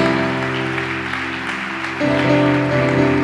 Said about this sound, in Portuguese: Aplauda Jesus por isso.